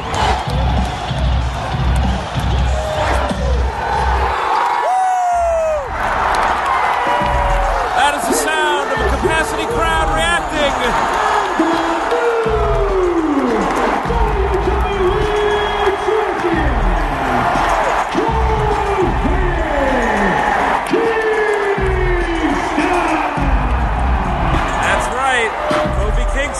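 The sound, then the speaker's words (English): A packed arena crowd roars and cheers wildly without pause as Seth Rollins becomes the new Universal Champion, loud, with rising whoops and shouts breaking through the dense, sustained din. “And the crowd goes wild.”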